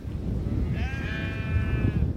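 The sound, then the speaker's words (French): A single drawn-out bleat from a black-headed, black-legged salt-meadow sheep on a windswept farm in Montmartin-sur-Mer, Normandy, France, with a wavering, nasal tone rising over a steady outdoor rumble of wind, lasting just over a second before fading. “Lui élève des moutons de presse salé à la tête et aux pattes noires.”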